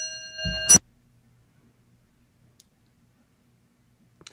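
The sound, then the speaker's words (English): A single bright metallic clang of a clock rings out near the start, then fades into near silence broken only by a couple of faint, sparse ticks. “I, wasn't sure if that was, I, heard a clang oh, in my ear. I thought it was my watch. It's no, it's still your clocks.”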